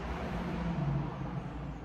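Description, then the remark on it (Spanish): A car rumbles past on a large avenue beside a home, its low engine drone swelling briefly and then easing, with steady traffic noise filling the background and no voices. “Maldito carro. Vivo al costado de la avenida, de una avenida grande encima.”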